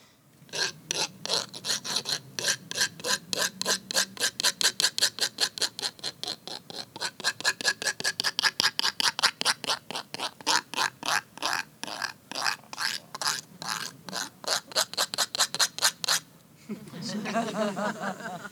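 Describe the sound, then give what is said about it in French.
A rapid series of dry, rasping scrapes from small hand-held instruments rubbed with the hand as a resonating chamber, dozens of clicky strokes in a steady rhythm that imitates a frog's croak, ending with a brief burst of talking. “Donc on peut ouvrir et fermer la main et euh, passer partout de, de la grenouille à la cigale euh, selon la, la rapidité à laquelle on les, on les frotte.”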